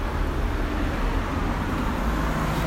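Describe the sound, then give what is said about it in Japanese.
A neighbour's car rolls past during a walk, its low engine and tyre rumble filling the moment as a steady, fairly loud roar with no one speaking. “ちょっと あのね今あのねお隣さんの車がね不意にと通りがかったんでちょっと急いでスポンジ外しましたけど”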